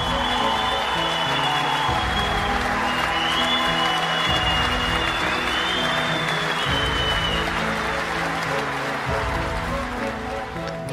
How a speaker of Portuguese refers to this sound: Sim, esses aplausos são para você e sabe por que eu estou te parabenizando e te trazendo essas palmas?